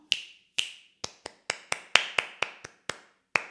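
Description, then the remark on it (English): A run of about a dozen crisp finger snaps, a body percussion pattern for students to echo. Each is a sharp bright click with a quick decay. After two spaced snaps they fall into a fairly even, brisk rhythmic pattern. No voices. “And I can do that a couple different times, maybe like four different body percussion patterns.”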